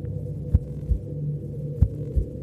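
A deep, slow heartbeat of a titanic heart, coming from a dark tunnel at the back of a cave, thuds in paired lub-dub beats, two full cycles over a low, steady droning hum, with no voices.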